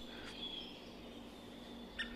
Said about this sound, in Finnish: Tässä on valkoselkätikka taustalla ja se on hieman pehmeämpi. Hennom, henno, hennompi, pehmeämpi, ei kuulu Käpytikalla. ollenkaan niin terävänä ja sanoisiko vihasen oloisena niin kuin käpytikan.